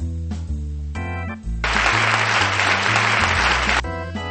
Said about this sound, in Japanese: ということでね、はい。あの 誰の拍手だよって感じですけど